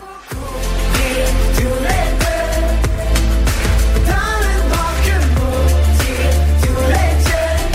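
A pop song plays loud and full, with a steady beat, deep bass and layered instruments, and no talking over it for the whole stretch.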